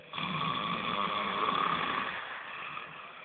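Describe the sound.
A voice mimics the loud snoring of a man who fell asleep while a plan was being presented, in one long, rasping, drawn-out breath, steady for about two seconds before trailing off into a quieter hiss.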